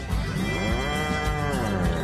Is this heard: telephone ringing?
no